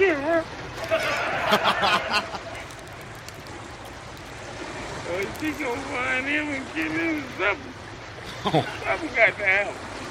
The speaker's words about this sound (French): On est sur un bateau là.